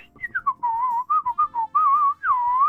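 A person whistles a short, wandering tune in clear, steady tones, rising and dipping in pitch with a few brief breaks between phrases. No one speaks.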